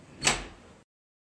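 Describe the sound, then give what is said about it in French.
A door blown open by the wind bangs open once with a sudden thud and a short, fading rattle. It is fairly loud, with no voices, and it cuts off abruptly. “Je te jure que j'ai crié à la, porte quand la porte s'est ouverte, ça m'a fait trop flipper avec le vent, ça m'a fait trop trop peur.”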